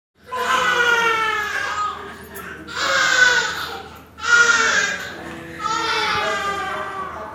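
infant crying

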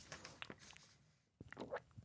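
loud swallowing

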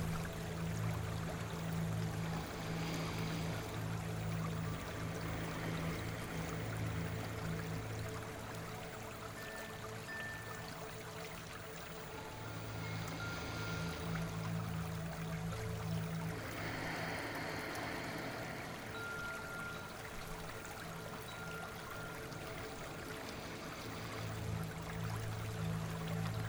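river water flowing

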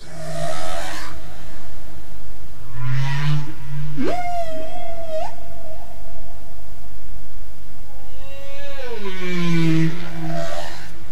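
humpback whale song

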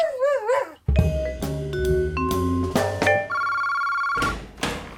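telephone ringing

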